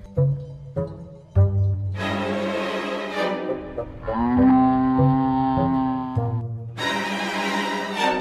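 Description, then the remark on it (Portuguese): A cow moos several times in a row, loud, with short calls giving way to long, drawn-out lowing, at a fenced cattle pasture beside the Guadiana River. No one speaks. “Agora sim, a história da vaca.”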